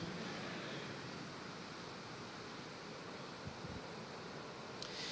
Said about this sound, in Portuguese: É chuva, é? Sinal de bênção, hein?